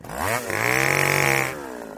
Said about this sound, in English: And I know it seems early because the weather is so warm, but we're creeping in on that time where you should consider giving that loved one the gift that they really love a STIHL chainsaw